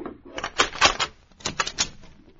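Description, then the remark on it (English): A house door is unlocked and opened: two quick bursts of clattering metallic clicks and rattles as the lock and latch are worked, with no voices. “See, I am coming. Wait until I unlock the door.”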